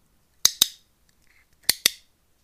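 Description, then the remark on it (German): A no-name iClick dog training clicker without a raised button sounds twice, each press giving a crisp, sharp double click-clack, with a short pause between presses and no voices. “Das ist ein No-Name iClick ohne erhöhten Knopf.”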